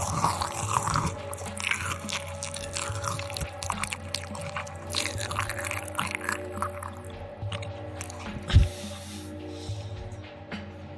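Crunchy corn chips being chewed for ASMR in steady, crackling bites, with dense sharp crunches throughout and one heavier crunch near the end; no talking.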